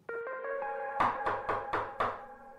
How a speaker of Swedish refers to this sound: Det knackar på dörren.